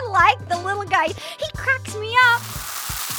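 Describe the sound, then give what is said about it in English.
A person talks, then a steady fizzing, sizzling hiss like carbonation rises and slowly fades out over the last second, moderately loud. “I fizz a lot when I get nervous.”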